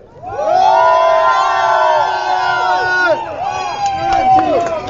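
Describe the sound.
A large demonstration crowd cheers and shouts loudly and continuously, many overlapping voices swelling into a sustained roar with whistles and higher cries mixed in, dense throughout.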